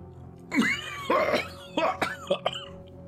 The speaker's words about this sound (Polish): wszyscy doskonale słyszycie, jak ktoś kaszle z tyłu samochodu na tej pace.